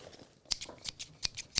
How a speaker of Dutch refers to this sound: Een schaar.